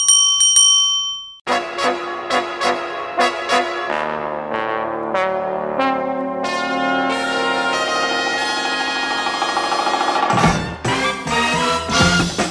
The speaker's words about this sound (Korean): 아까 전화벨 소리 듣고 놀랬죠? 예, 좀 바뀐 줄 알았어요. 본인 전화 온 줄 알고.